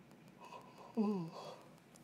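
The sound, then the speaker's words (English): A short, voiced yawn with a falling pitch and a breathy tail, standing out from a quiet background, with no speech around it. “If you guys are doing the yawning drinking game, y'all are getting fucked up.”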